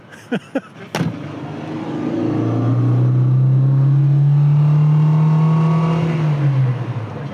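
A classic car engine revs up and accelerates as the driver gives it a bit of gas while out for a drive, its low droning note rising and holding strong for several seconds before easing off, after a few sharp clicks at the start.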